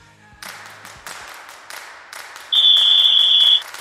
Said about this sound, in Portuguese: eu inicio, dou início ao primeiro quarto, apito o juiz, então roda a nossa vinheta.